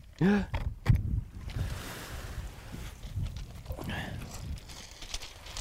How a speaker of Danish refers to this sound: I det her blæsevejr.